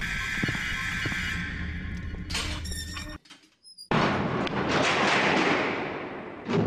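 A heavy bunker door grinds and groans open with loud metallic creaks, falls briefly quiet, then gives way to a long, harsh scraping roar, very loud.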